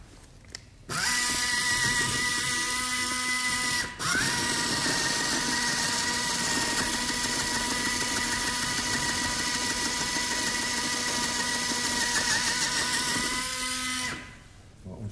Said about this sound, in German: Ja, dann gib mir nochmal den Bohrer nach hinten zu. Da werden wir noch eins machen. Den dicken Bohrer.